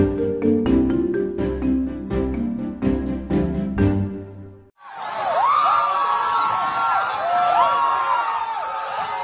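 A short stretch of rhythmic music cuts off, then a crowd of anti-abortion protesters erupts in loud, sustained cheering after the US Supreme Court overturned Roe v. Wade, with rising and falling whoops and shouts over a dense roar of voices.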